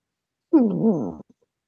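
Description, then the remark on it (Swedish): A single drawn-out meow from a small cat rubbing against a person, close to the microphone and fairly loud, with a wavering pitch lasting under a second, followed by quiet. “Ja, och så har jag en liten katt just nu som håller på och stryker sig på mig.”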